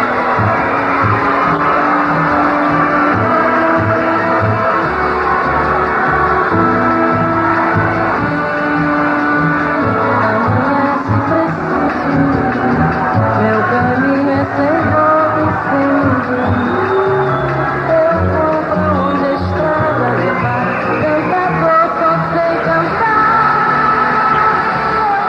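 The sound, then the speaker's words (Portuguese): A festival audience at a song contest boos and jeers loudly and without pause at a performance, a dense, rough roar of many voices shouting and bellowing that holds steady for the whole stretch. “começou com vaia, mas ela melhor intérprete do certame, virou a situação.”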